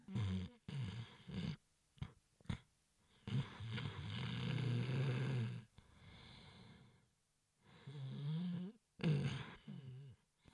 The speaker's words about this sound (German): Die Tauben gurrten und trippelten hin und her und das Räubermädchen begann zu schnarchen.